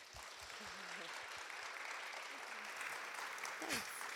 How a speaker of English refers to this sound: Can we just encourage her with a clap?